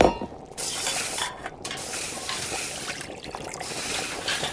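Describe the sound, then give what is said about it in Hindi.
A steady stirring and bubbling sound in a pot as water-soaked rice is added to half a kilo of boiling cow's milk on a gas stove and stirred, with a soft sizzling hiss running throughout and no one speaking. “अब इसमें एक उबाल आने का इंतज़ार करते हैं जैसे ही इस दूध में एक उबाल आए हमने डाल दिया इसमें पानी में सोख हुए चावल”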